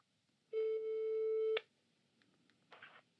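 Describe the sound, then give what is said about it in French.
A single steady, pitched telephone ringback tone sounds for about a second over a quiet line as a call is placed from a small bedroom turned radio studio to Jean Viard at his house in the Vaucluse, then cuts off, followed by faint line noise and a brief soft rustle. “depuis ma petite chambre transformée en studio radio et je suis sur le point d'appeler Jean Viard qui a accepté de parler de notre impression de ne plus avoir de temps libre.”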